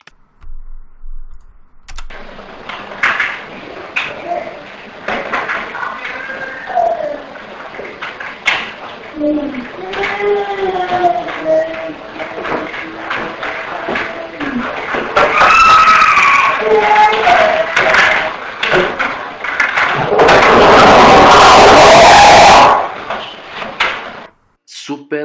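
A supposed EVP recording: wavering, wailing vocal cries over crackling, clicking noise, building toward a final piercing scream so loud it distorts into harsh clipping.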